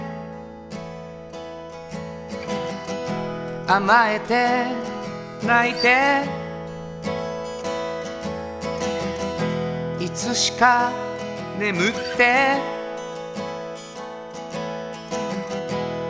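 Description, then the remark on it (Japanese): A solo vocalist sings a slow, tender, newly written love song with a vulnerable, self-doubting tone over steady instrumental accompaniment, with sustained chords and gently rising melodic phrases, moderately loud. “新曲はい、うん、えー、作ってまいりましたはいえー、ちょっとなんていうのかなあんまりまあラブソングだけどはいちょっと弱音吐くみたいなね、ううん、この曲を久しぶりに書きました。”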